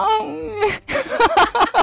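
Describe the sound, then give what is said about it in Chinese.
A person imitates a cat's long, baby-like meow: one wavering, whiny tone lasting about half a second, followed by quick continued talking. “喵喵喵，还有一次是像婴儿一样，喵，”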